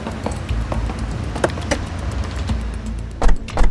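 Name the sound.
getting into a car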